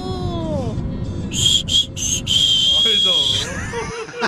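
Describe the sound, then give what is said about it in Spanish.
A shrill human whistle, a mother's whistle to wake her children, sounds in a few short, sharp bursts and then a long, steady note, loud, with murmuring voices underneath. “Mi papá no nos chiflaba, pero mi mamá sí para despertarnos.”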